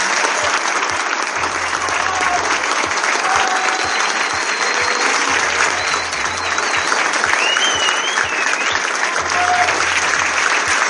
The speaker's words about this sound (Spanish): aplauso para los organizadores